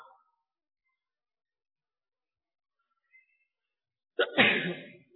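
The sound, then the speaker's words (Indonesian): A single loud sneeze bursts out after several seconds of near silence, sharp at the start and trailing off quickly. “Alhamdulillah.”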